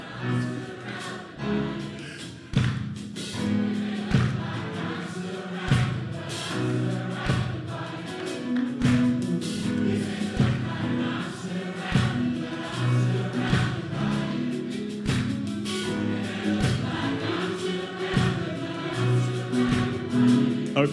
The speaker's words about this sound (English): Okay, I'm shocked because white people are clapping off the beat. It's just like an amazing thing. This is so cool.